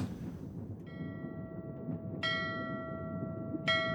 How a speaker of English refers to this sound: So you uh, wake up to the sound of a ding, ding, ding. Classic sea bell. All right, everyone on deck.